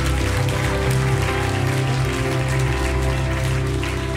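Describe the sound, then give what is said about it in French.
An audience at a church service claps steadily for about four seconds to applaud the online viewers, a dense, crackling wash of many hands at even loudness, with low sustained musical tones humming underneath. “Est-ce qu'on peut applaudir nos internautes, les saluer et leur dire à la semaine prochaine”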